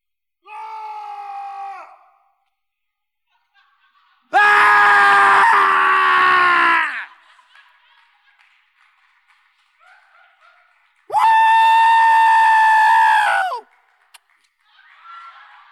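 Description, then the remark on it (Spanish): A man lets out two long, raw, full-throated screams into another person's face, each lasting a few seconds, with a shorter, softer vocal cry before them and quiet gaps in between. “Grita en mi cara.”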